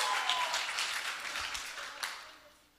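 Audience applause fills the space with dense, steady clapping from a crowd, holding fairly loud before tapering off toward the end, with no one speaking.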